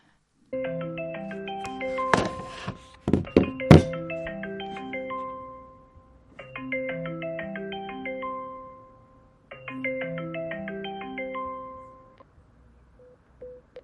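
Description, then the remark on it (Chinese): A melodic phone ringtone plays a bright, repeating tune in three bursts separated by short pauses, with a few sharp clicks and knocks during the first burst; no one speaks. “我不走，然后我就开始打电话。”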